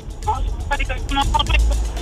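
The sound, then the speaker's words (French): A caller's voice on a morning radio show phone call comes through in choppy, broken fragments over a steady low engine-like rumble, the connection cutting in and out for about two seconds. “Euh, là, on, ça coupe pas mal.”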